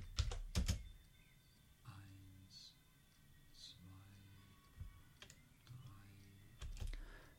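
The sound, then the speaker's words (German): Several crisp computer keyboard key presses, including the Escape key, a quick pair at the start and a couple more near the end, fairly loud over a faint murmur of voices. “Ich drücke Escape und spiele nochmal das Original vor.”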